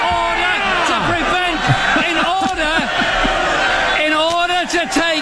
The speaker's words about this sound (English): I've been listening to the Brits scream and yell about various things in Parliament.